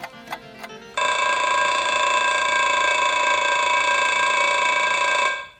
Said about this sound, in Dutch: De wekker is toch gegaan?